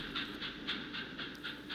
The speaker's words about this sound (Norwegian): Toget siger inn på jernbanestasjonen i Kigoma ved Tanganyikasjøen.